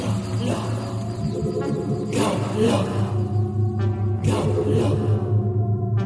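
A deep, steady electronic hum drones throughout, punctuated by several sweeping whooshing surges as the sci-fi spaceship Galaxia powers up and throbs after an energy stone is placed in its dashboard, loud with no voices.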